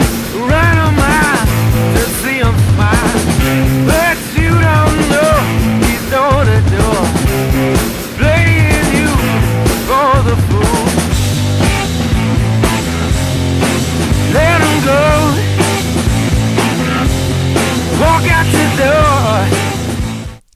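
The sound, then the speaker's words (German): A loud, dense rock song from a soundtrack plays at full volume for the whole stretch, with driving drums, bass and electric guitars beneath a sung vocal line, ending abruptly. “haben einen knallermäßig guten Song in dem Soundtrack von School of Rock”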